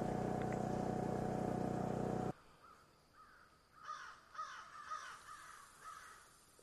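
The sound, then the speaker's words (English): A loud vehicle rumble cuts off abruptly, then a bunch of crows caw repeatedly in a rough, uneven series of harsh calls, right overhead in tall pines at Fitzroy Provincial Park, Ontario, on a Thursday just after 10 in the morning, against a quiet outdoor background. “the crows.”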